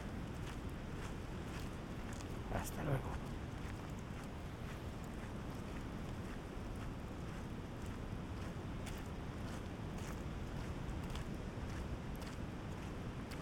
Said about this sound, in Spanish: Vamos a dejar un poquito de silencio antes de despedirnos. Que escuchéis el sonido del mar a nuestra derecha.